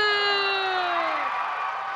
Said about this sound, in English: The crowd's gone crazy today.